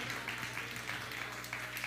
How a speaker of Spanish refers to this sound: Venga, dale un fuerte aplauso, venga, venga, venga, venga.